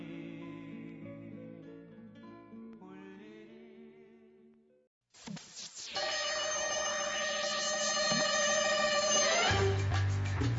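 Bright, clanging bells ring loudly and continuously with a shimmering, overlapping tone, following a softer stretch of sustained tonal melody and a brief pause.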